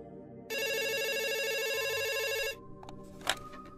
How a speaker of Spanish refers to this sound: Cuando era niño me encantaba levantar el teléfono de la casa cada vez que sonaba.